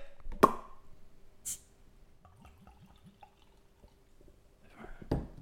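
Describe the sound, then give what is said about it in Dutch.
Black beer with a red glow glugs and trickles as it is poured into glasses, with a sharp clink or knock at the start and end and a faint steady hum underneath; nobody speaks. “Zal ik hem gaan inschenken”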